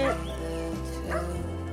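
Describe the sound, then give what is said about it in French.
Two short dog barks ring out about a second apart over a steady low background hum with no other sounds. “Au revoir les chiens.”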